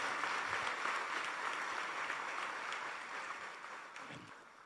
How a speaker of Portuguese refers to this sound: Aplaude, ele merece.